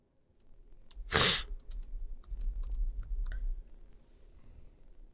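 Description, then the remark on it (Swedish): Irregular clicking of keys on a computer keyboard, a run of quick taps, with one louder burst early on and a low hum underneath. “Har vi fått ett svar här eller, eller vad, vad, skrev du för något”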